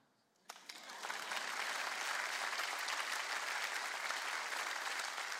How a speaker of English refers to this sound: You can clap.